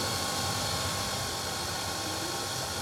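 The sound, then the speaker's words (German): A hair dryer blows to heat up station 3 of a senseBox sensor network, a steady, even roar of airy hiss, loud and unchanging for the whole stretch, with a low rumbling flutter underneath and no voices. “Reicht denn mein Föhn bis oh, da hinten hin? Du kannst da hinten auch noch föhnen.”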